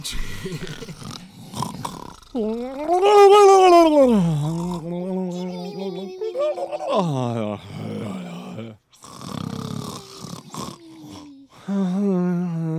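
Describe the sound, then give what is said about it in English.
Several people make exaggerated, drawn-out snoring and groaning noises with their voices, overlapping loudly for about ten seconds, with a few short breaks between the sustained sounds. “These let's let's do a let's do a collective snore of relief as we fall asleep together.”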